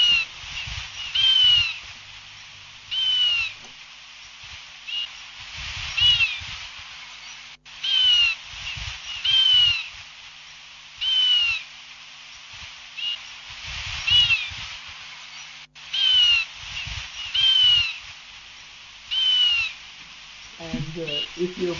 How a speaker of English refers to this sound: it's the sound of the black-throated finch, which is another, which is one of the creatures, uh, one of the birds whose environment will be affected by this mine. So they sound, it sounds just beautiful.